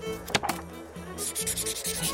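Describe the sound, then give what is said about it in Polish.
A pencil sketches on paper, drawing a girl who is dancing by a band, in a quick run of short, rasping strokes, the scratching growing brisker and more rhythmic partway through, with a low steady hum underneath. “Muszę ją narysować.”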